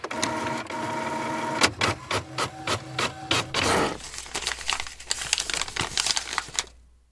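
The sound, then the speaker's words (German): A printer hums and clatters in a quick run of rhythmic mechanical bursts as an article is printed, then paper crinkles and rustles as the printout is lifted and handled. No one speaks. “Ja, ich habe dir das Ding gerade schon ausgedruckt. Schau mal da hinten, müsste am Drucker liegen.”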